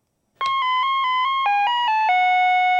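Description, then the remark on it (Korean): An electronic chime plays a short, bright melody of about nine evenly spaced notes, a vehicle's reversing alert playing a piece by Beethoven, loud, with a steady tone and no voices. “후진할 때, 예, 요 음악이 많이 들리죠.”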